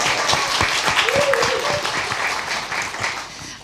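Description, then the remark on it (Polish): A crowd applauds writer Maciej Siembieda, winner of the readers' Kaliber award for the book Katarzis, at an author meeting: a dense wash of many hands clapping at a fairly loud, even level for several seconds, with a brief faint voice or tone rising in the middle. “Brawa.”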